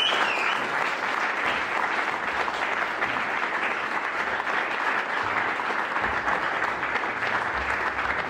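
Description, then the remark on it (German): A live audience claps steadily, a dense, even wash of applause holding at a consistent loudness for about eight seconds without any voices. “Ein, wundersch ein wunderschönen Applaus bitte für unsere Frau.”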